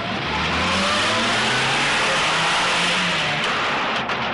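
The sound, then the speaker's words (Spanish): A black car's engine accelerates as it drives off, a loud, steady roar of road and motor noise with rising and falling engine tones over four seconds, with no voices. “Se asoma y ve partir un coche negro.”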